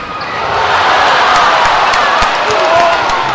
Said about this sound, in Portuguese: Nas bancadas, as claques não faltam à festa.